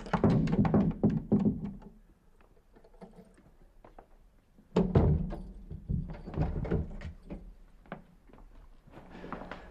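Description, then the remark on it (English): The keys of a school rattle and clink in a hand, with a dense burst of sharp metallic jingles, a quieter pause, then another long stretch of irregular clattering and tapping. “oh, that's the keys of the school in your hand.”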